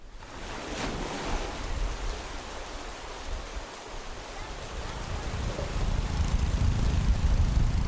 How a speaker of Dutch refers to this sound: Halverwege de reis belanden de mensen in Thailand aan de Chinese zee. Dat hoor je, die zee, en ook dat het regent. Lachen de Chinezen op de achtergrond, want die zitten daar toevallig ook in dat dorp.